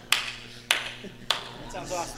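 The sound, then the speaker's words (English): Three sharp, crisp hand claps in a slow clap at an even pace, roughly half a second apart, followed by a faint murmur of a voice. “slow clap? Was that a slow clap?”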